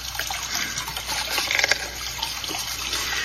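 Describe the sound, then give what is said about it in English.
Water splashes and gurgles steadily in a cool creek, a continuous bright rush with small sloshing bursts, fairly loud, no voices present, as people wade in with gigs to catch crawdads. “When we grasp our gigs and wade into the cool creek to catch crawdads for supper,”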